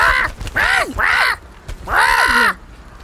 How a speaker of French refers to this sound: L'oiseau est totalement agité et pique du bec Sacha en piaillant.